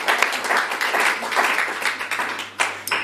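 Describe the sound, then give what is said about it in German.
A crowd applauds warmly, a dense, steady wash of many hands clapping at once, sustained without pause, with no voices standing out. “Ganz uh, herzlichen Applaus für Andrea Schmidt.”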